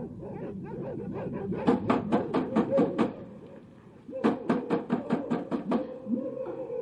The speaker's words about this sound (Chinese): 有人敲门。 啊，会是谁呢？